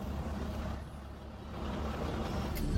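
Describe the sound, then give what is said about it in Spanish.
A heavy bus engine idles with a deep, steady rumble, rising slightly toward the end, where a short hiss like an air brake release cuts in; buses seen on the road leaving Playa Tunco. “Mira esos autobuses.”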